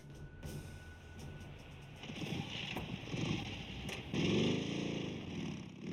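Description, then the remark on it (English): A Moto Guzzi motorcycle engine rumbles steadily, then revs louder with a rising, wavering pitch near the end, with faint wind noise in the background. “Nice motorcycle, too. Moto Guzzi.”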